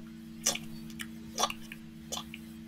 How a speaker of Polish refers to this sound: Ze strony tej, tych uchylonych drzwi, pomiędzy deszczem, jakiś pies pije wodę.